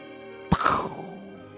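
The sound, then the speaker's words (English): A voice imitates a gunshot with a single sharp burst that fades quickly into a short tail, with no talking around it. “Was that a convincing gunshot?”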